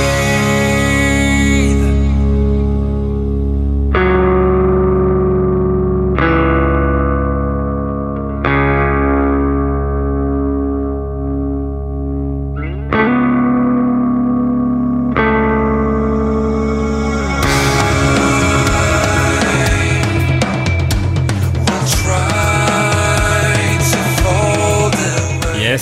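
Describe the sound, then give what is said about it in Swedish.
Loud, distorted electric guitar chords ring out and decay one after another, then the song bursts into a dense, full-band wall of sound for the final stretch, with no vocals. “det här är en låt som heter … som jag tycker det är synd att det inte har fått mer spridning”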